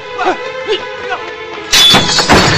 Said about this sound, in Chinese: 把后园门打开。哼！来呀，把门砸开！